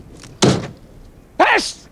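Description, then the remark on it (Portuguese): A car door clicks open with a solid clunk as someone gets out, then about a second later it swings shut with a second heavy thunk, both loud. “Abre a porta e sai.”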